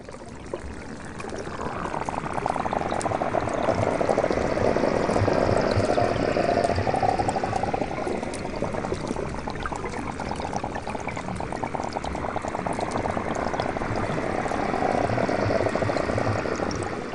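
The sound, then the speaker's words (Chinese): A steady, dense rushing and gurgling of water from an erupting underwater hydrothermal vent at Guishan Island, like a continuous pour with bubbling texture and a low rumble, sustained at even loudness throughout with no voices. “整个地球生命最重要的起源地，我们来听一下在龟山岛海涌泉的喷发的声音。”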